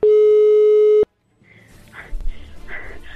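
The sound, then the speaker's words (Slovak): A single loud, steady telephone ringing tone of an outgoing call sounds for about a second and cuts off abruptly, followed by quiet rustling and handling noise as the line picks up. “Idem ti volať.”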